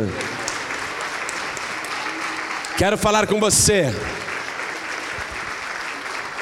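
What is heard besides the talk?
audience applauding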